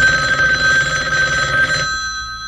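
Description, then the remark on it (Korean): A home telephone rings at midnight with a steady, bright electronic trill of stacked high tones, loud and continuous for nearly two seconds before cutting off, leaving a quieter low hum. “그렇게 한 다섯 번쯤 전화기가 울렸을 때 그래도 우리 집에서 가장 잠귀가 밝다는 우리 엄마가 잠이 덜 깬 목소리로 전화를 받았고”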